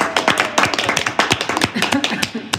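Steady applause from a small crowd, many hands clapping in a dense, uneven patter at a fairly strong level for the whole stretch, with a faint voice briefly underneath.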